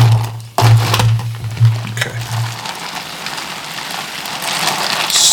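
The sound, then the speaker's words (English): Steady crackling fizz of a carbonated seltzer drink as it is stirred, with a couple of brief clinks and a low hum fading out partway through. “stir the whole thing. Give it a good, good stir.”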